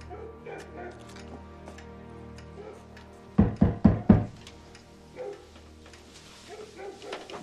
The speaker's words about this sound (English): You didn't ask there. Knock on that door.